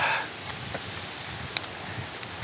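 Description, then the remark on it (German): Steady outdoor wind that is picking up: a broad low rumble with a constant airy hiss over it and a few faint ticks, unbroken, with no voices. “Ist auch, wird auch windig jetzt.”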